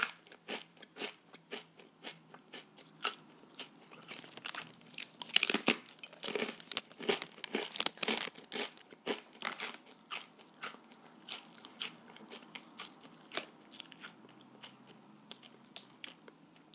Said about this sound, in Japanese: まあでもこれめっちゃうまそうやなうん一枚だけ食べるかこれねえびせんいきます